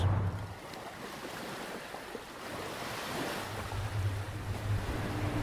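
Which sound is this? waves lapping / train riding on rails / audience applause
waves lapping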